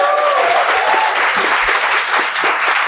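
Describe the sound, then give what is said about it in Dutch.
A live audience at the show Voor de Show claps steadily and loudly, a dense wash of many hands with a few whistles or cheers briefly rising above it, sustained for the whole few seconds. “En een collega van ons die we erbij gaan halen en nog harder applaus voor gaan vragen.”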